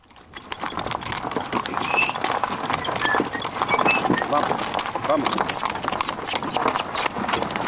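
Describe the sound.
Horse hooves clip-clop in a steady rhythm on a hard surface, continuing throughout, with faint voices and birds in the background.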